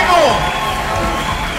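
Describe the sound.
A crowd applauds and cheers loudly, a dense wash of clapping with raised voices and shouts mixed in, sustained and close throughout.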